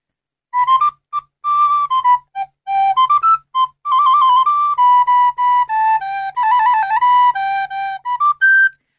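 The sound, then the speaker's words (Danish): A recorder plays a bright, clear melody alone, with a smooth refined tone. Its notes move in steady, mostly short phrases, fairly loud, with no talking. “så har de skivet den op ligesom en agurk på tegningerne”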